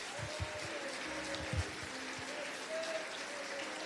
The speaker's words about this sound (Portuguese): Aplauda ao Senhor, queridos.